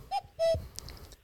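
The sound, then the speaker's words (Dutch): A house doorbell chimes a two-note cuckoo call, a short hoot followed by a longer, lower one, clear, then a faint rustle with no voices. “Maar het is ook weer toeval natuurlijk dat dat een koekoek is.”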